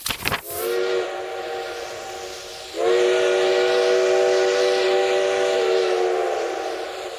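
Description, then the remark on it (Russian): The steam whistle of a long train departing from a small halt on the Trans-Siberian Railway sounds two long, loud blasts, a shorter one and then a sustained one after a brief pause, with a faint rumble underneath and no voices. “На одном из полустанков Транссибирской магистрали ненадолго остановился длинный состав.”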